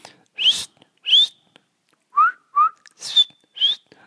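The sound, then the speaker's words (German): A person imitates the whistling calls of marmots with six short, sharp, rising whistles in uneven pairs, some shrill and some lower, loud with brief silences between. “die mit ihren komischen Pfeifen halt immer so hin, her, hin, ja.”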